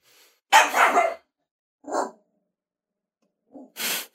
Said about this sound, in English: I hope that she just stops barking